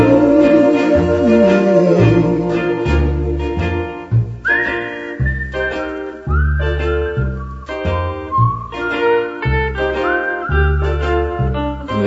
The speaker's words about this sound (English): It's a whistling tune for walking in the night. If you listen, you can hear it in the breeze, especially when the breeze is drifting through the trees.